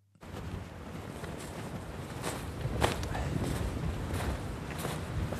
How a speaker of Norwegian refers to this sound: Ja, nå begynner vinden å ta litt her òg. Det er nok kanskje en storm som er på vei, som de har meldt. Her kommer vi inn i le av, av huset her. Vi er ved Reppen i Nesseby, på sørsiden av Varangerfjorden.